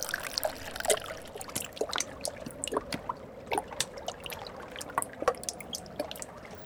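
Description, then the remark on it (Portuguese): A lot of water trickles steadily down in a hole, with scattered sharp drips and splashes landing irregularly over a low, continuous running-water wash; no one speaks. “Caraca, tem bastante água aqui, hein?”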